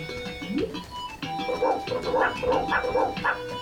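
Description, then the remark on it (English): A video game dog barks in a quick, repeated series of short yapping barks over a steady electronic background hum, moderately loud. “I don't think you can bark at him from that far.”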